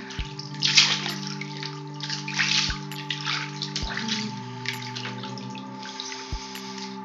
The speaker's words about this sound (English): listening to the splashing of the water.